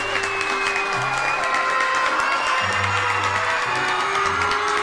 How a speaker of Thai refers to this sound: บรรดาสัตว์ป่าต่างปรบมือพร้อมกับส่งเสียงชัยโยแสดงความดีใจกับกระแตที่สามารถเอาชนะกระต่ายได้สำเร็จ